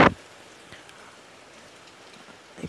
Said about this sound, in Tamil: இந்த மன்சூன் சீசனில் வந்து குறிப்பிடத்தக்க சொல்லத்தக்க அளவில் மன்சூனும் கிடையாது மழையும் கிடையாது இன்றைக்கி வந்து ஒரு நாலு அஞ்சு ஆறு நாட்களுக்கு பிறகு இன்றைக்கி தான் ஒரு நல்ல மழை கிடைக்குது